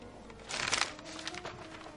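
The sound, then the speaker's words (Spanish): Dry rustling of papers being shuffled and handled on a nightstand in a bedroom with damp-peeling walls, with a brief louder flurry of crinkling in the middle before settling into softer scraping. No one speaks. “Mira entre los papeles de una mesilla de noche.”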